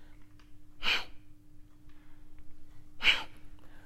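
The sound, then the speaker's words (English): Two sharp, forceful exhalations through the nose in the breath of fire breathing technique, spaced about two seconds apart, fairly loud against a quiet low hum, with no talking. “Continue doing exactly what you're doing, just a little faster, with the focus on the out breath, on the exhalation.”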